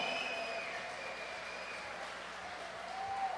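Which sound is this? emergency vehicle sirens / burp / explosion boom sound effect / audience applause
audience applause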